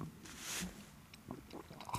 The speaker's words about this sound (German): Trinken. Ja, du trinkst viel. Das ist mir auch noch gefallen, dieses Schlürfen.